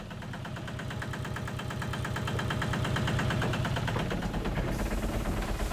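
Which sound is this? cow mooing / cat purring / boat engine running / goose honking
boat engine running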